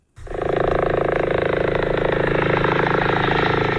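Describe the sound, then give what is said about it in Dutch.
A helicopter roars loud, its engine whine layered over a rapid, steady rotor chop that pulses evenly throughout, with no one speaking, as it carries a COVID intensive-care patient from the Flevo hospital in Almere, Netherlands, to Münster, Germany. “De patiënt gaat met een helikopter van het Flevo ziekenhuis in Almere naar Münster in Duitsland.”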